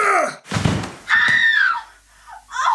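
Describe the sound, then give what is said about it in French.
A heavy thunk like a car door slamming shut, followed at once by a sharp, sustained scream and a shorter second cry, loud with no talking. A man leaps from a parked car and knocks out a scientist with a revolver butt as he opens his driver's door. “Comme Alain s'apprêtait à ouvrir la portière conducteur de son véhicule, quelqu'un jaillit de la voiture garée juste à côté et d'un coup de creuse de revolver assomma l'infortuné scientifique.”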